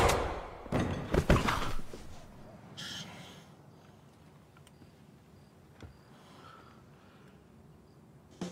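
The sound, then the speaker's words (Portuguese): A sharp gunshot cracks out near the start as a man is shot in the head in the final scene of a TV series, followed by a brief echoing burst, then a long quiet stretch of faint room tone with occasional soft thumps. “o final de Barry com ele tomando um tiro na cabeça e subindo os letreiros”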